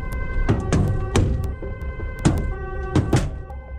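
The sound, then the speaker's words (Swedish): Stones thrown by counter-demonstrators striking a police bus, recorded by the police's own video cameras from inside the bus: sharp, heavy thuds land irregularly about five times over a steady engine hum, with a faint siren-like tone in the background. “Det här ljudet när stenarna träffar polisbussen är inspelat av polisens egna videokameror inifrån bussarna.”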